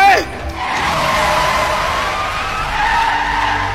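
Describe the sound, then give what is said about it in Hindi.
A truck brakes hard, its tires letting out a loud, sustained screech that holds steady for a few seconds as the vehicle skids to a stop. “दलबीर ने गाड़ी रोकी”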